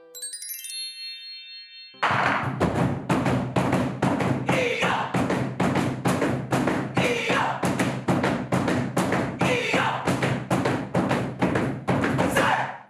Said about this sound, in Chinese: 震天尬响的鼓声，这是来自马来西亚的二十四节令鼓，以二十四面单皮大鼓代表中华文化的二十四个节气，结合南方广东诗鼓和传统的书法艺术，用不同的古典节奏搭配呐喊。